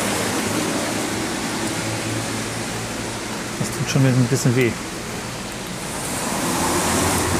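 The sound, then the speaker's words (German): Steady rain hisses outdoors throughout, a dense, even wash of noise; a man's voice speaks briefly partway through over the rainfall. “falls ihr euch fragt, ja, es regnet immer noch.”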